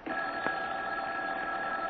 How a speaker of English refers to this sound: As we rejoin him and his wife, Molly, the phone is ringing.